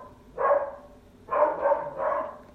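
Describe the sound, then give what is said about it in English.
A dog barks four times in short bursts: a single bark, a brief pause, then three quick barks in a row, moderately loud, with no one talking. “Sorry, that's uh, my dog.”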